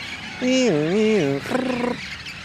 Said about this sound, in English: binoculars and recording equipment several times a week to observe and listen to the red crowned parrots who roost in the eucalyptus trees. Actually hearing the, the duets a little bit here between the, the contact calls and the begging call that.